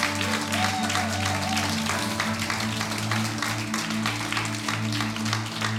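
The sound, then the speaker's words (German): A church audience in a full hall applauds the worship team and online church steadily, a dense wash of many hands clapping without pause, with a sustained low musical hum running underneath throughout. “Und deswegen feiern wir das so sehr und können wir einfach Lob und auch Online-Kirche nochmal einen riesen Applaus geben.”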